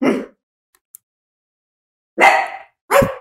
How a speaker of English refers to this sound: Sorry if you hear barking. That's Finn being a dick.